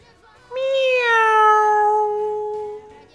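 A single drawn-out cat meow, a clear tonal cry that starts abruptly, holds for a couple of seconds with a slowly sinking pitch, then fades out. It stands alone with no talking around it.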